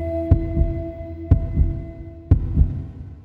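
A heartbeat sound effect: three double lub-dub thumps, low and punchy, about one per second, over a steady faint tonal hum. No one speaks.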